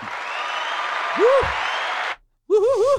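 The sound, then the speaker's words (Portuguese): An audience applause sound effect: dense, steady applause fills about two seconds, with a brief vocal whoop in the middle, then cuts off abruptly; after a short silence a voice starts speaking. “Este público, este público está incontrolável.”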